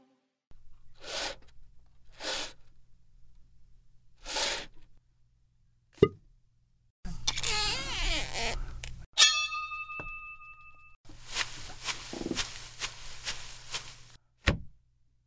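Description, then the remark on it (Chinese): A small abacus is shaken and slid as a foley demonstration to imitate a sliding door: a few short swishes, then longer clattering, rattling runs of beads, with a brief ringing tone partway through and no talking. “拉门是用什么东西？就是用这个 算盘。”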